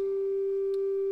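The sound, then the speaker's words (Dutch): A single steady organ tone from an 8-foot stop, held evenly at a moderate level, smooth and nearly pure with faint upper harmonics and no voices. “De tweede koraalzetting van Klaas Bolt die ik nu ga spelen, zal ik spelen met een combinatie van registers, 8 voet,”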